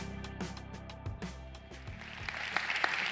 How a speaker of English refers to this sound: Listen, I'm glad y'all started clapping because I was this close from starting to beatbox along with that, and that would have been awkward.